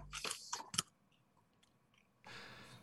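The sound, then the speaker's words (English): Crunching of a mouthful of Parm Crisps cheese crisps as a man dumps an entire bag into his mouth: a quick burst of sharp, brittle crunches, a brief quiet pause, then steady noisy chewing resumes. No one speaks. “Oh my God, he's literally dumping an entire bag of Parm Crisps into his mouth.”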